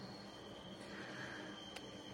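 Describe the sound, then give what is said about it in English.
A train rumbles past next to a hotel, a steady, fairly quiet low roar with a thin metallic whine above it and one brief clack near the end; no one speaks. “So, this is the train next to my hotel. you can hear it.”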